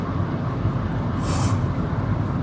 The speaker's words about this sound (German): ist gerade Polizeiauto bei mir vorbeigefahren.